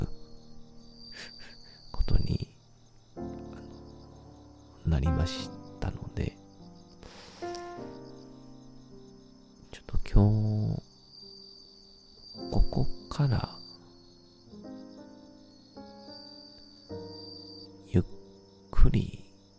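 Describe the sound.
Bell crickets chirp in a steady, high-pitched ringing trill that runs through the whole recording, sitting quietly in the background beneath intermittent voices talking.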